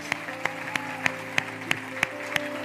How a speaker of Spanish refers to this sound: Vamos a darle un aplauso fuerte a nuestro buen Dios.